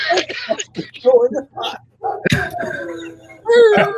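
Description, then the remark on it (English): German shepherd dogs next door bark in repeated sharp bursts mixed with whining, yelping tones while people talk over them. “These dogs over next door. They're German shepherds and they're so annoying.”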